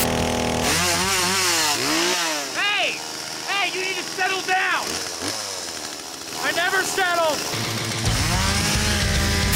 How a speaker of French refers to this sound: Ah, c'est une publicité d'AMD qui date de 2014. Elle s'appelle The Fixer, le réparateur. Et en un peu plus de deux minutes, AMD se moque de son concurrent. Ça se termine par le réparateur qui massacre la carte Nvidia à la tronçonneuse.